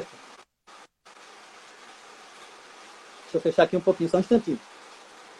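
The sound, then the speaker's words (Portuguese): Steady rain hisses outside in a continuous, even wash of noise, and a person begins speaking over it toward the end. “Você está ouvindo porque tem chuva.”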